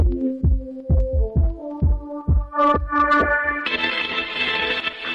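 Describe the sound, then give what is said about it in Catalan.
A short musical jingle introducing the 'La llibreta del futur' section, with a steady pulsing bass beat under tonal melody lines, building until a bright, dense burst of full sound takes over near the end, with no voices. “sentim la, la llibreta del futur amb, amb la fúmiga, per exemple, de, de música, va.”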